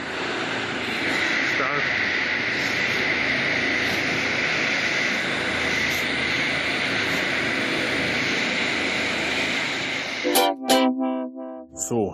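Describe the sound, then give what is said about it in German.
A steady, loud engine drone of approaching helicopters fills the air for about ten seconds, then cuts off as a man starts talking. “Die Hubschrauber kommen.”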